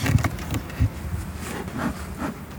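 A dense, steady hum of honey bees swarming around a hive, with a few soft knocks and thumps rising briefly above the buzzing. Nobody speaks.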